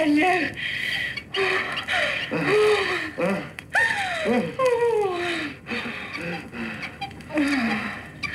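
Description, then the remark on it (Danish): A bed creaks in a steady rhythm, each squeaky creak bending downward in pitch and repeating roughly once a second, fairly loud, with breathy vocal gasps mixed in. “Ja, det er sengen, der knirker.”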